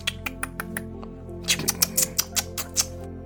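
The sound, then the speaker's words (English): Repeated wet lip-smacking clicks made to call a pet, a quick even run of soft smacks followed by a louder, more irregular cluster of sharp smacks, with no talking. “It, sounds like you're making lip smacking sounds like here, dragon.”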